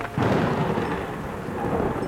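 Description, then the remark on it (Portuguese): A deep, rolling rumble of thunder sounds at night over steady, heavy rainfall, the low roar swelling early and lingering throughout with a dense hiss of rain and no voices. “Naquela noite, choveu muito. Leia não gostava de chuva. Ela tinha muito medo dos trovões.”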